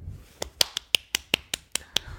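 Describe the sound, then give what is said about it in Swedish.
A small, feeble round of clapping: about nine light, sharp claps at a steady, unhurried pace. They're quiet and thin, with no voices. “så skitlame applåder bara.”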